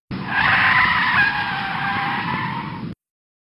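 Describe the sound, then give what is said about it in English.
A loud, sustained screech of car tires skidding under hard braking, lasting about three seconds with a steady high-pitched squeal before cutting off abruptly, with no voices; a sound effect played for a 'Pump the Brakes' segment when a host disagrees with a take. “And if the other one uh, disagrees, they'll say Pump the Brakes and you will hear.”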